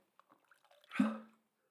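A quick splash of water poured into a glass, fairly loud, lasting under half a second after a few soft clicks and knocks; no one speaks.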